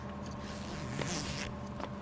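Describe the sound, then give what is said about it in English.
A quiet jacket zipper pulled up in one quick stroke, with a brief scratchy rasp amid a low, steady background rumble and a couple of soft rustles. “Zip up. It's gonna be cold in there.”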